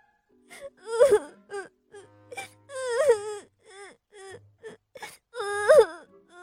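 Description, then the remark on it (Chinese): A voice imitates a little monkey crying sadly: three long, wavering wails with rising and falling pitch, broken by short whimpering sobs in between, fairly loud and with no speech. “小猴子低着头，朝自己的小床爬去了。他伤心的哭了。”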